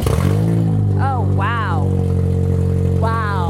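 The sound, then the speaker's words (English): Brittany Burns's car in Houston, its catalytic converter stolen overnight, roars loudly on starting with a harsh, unmuffled rumble, holding a steady deep drone throughout, with a couple of brief rising whines riding over it. “Brittany Burns recently started her car and heard this.”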